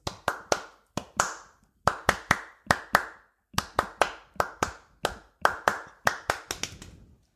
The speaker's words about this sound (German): Ich kann mal, das, das Einzige, was ich also wirklich was ich geübt habe, mal gucken, ob ich es heute noch kann, das fängt mit einem Klatschen an und hat in der Bridge nochmal so ein Klatschen und das geht ein bisschen sinngemäß